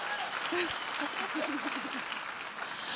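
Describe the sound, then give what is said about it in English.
A round of applause fills all three seconds as a dense, steady wash of many hands clapping, with a voice briefly speaking underneath it. “Round of applause.”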